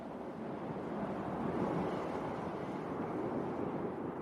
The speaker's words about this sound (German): Am 23. Januar 1960 geht es los. Morgens um 8 Uhr, als ein heftiger Sturm auf dem Meer tobt, schreibt Jacques Picard ins Logbuch: Wir schließen die Tür.